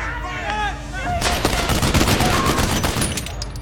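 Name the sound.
gunshots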